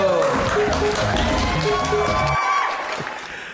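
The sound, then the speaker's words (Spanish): Loud applause and cheering from a crowd for the anniversary of XR Radio Mensajera, from Ciudad Valle, San Luis Potosí, a steady wash of clapping and shouts with music playing underneath; the music drops out partway and the cheering carries on, fading slightly. “Desde Ciudad Valle, San Luis Potosí, nos ponemos de pie y aplaudimos a la XR Radio Mensajera.”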